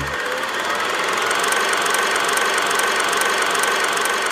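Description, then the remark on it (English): A steady mechanical whir with a fast, regular clatter running through it, a kinetoscope film projector running to show the new film Barbarian, loud and continuous with no voices. “So let's pull out the kinetoscope and take a look at the new film, Barbarian.”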